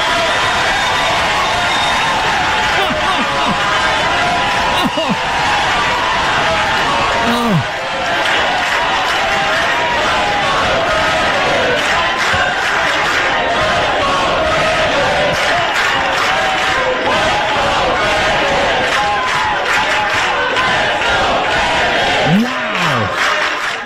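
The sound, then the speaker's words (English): A large crowd roars and cheers enthusiastically, a loud, dense wall of overlapping voices and shouts that stays steady from start to finish without letting up. “The level of enthusiasm that crowd had.”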